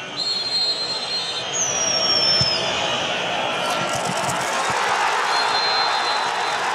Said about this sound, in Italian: Che spettacolo sentire il pubblico che esulta.